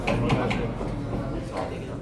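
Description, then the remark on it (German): A few hard knocks of a schnapps glass on a wooden bar counter in a pub, three quick ones then another after a pause, under a steady murmur of background chatter. “Dieses Klopfen auf die Holztheke mit dem Schnaps?”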